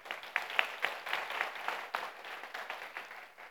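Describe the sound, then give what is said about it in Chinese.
Audience applause fills the whole stretch, a dense crackle of many hands clapping at a steady, fairly loud level, with sharper individual claps standing out now and then. No one speaks over it. “我们也把感掌声归给神，好吗？”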